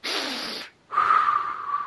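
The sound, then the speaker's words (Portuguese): Two drawn-out, congested sniffs from a person with the flu, the first lasting under a second, then a brief pause before a longer, harsher inhale. No one speaks. “Esse nariz tô tá lá fungando, cara.”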